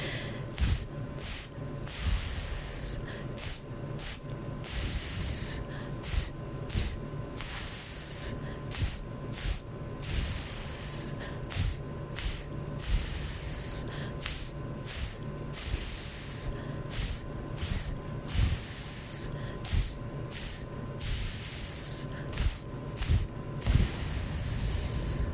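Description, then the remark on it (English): A person repeatedly exhales hissing S sounds in a steady pattern, two short bursts followed by a longer one, fairly loud, with brief breaths between, as a breathing exercise connecting to the diaphragm and abdomen. “You're going to exhale with short S's, two short ones and one long one.”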